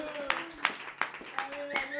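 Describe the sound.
Audience applause for the Café du Commerce coming through as about five steady, evenly spaced claps, moderately loud, over a sustained, humming voice-like tone in the background.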